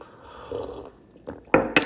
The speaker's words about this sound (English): Yes, I slurped. Um, the tea is good. This tea is good as shit. This tea is really good.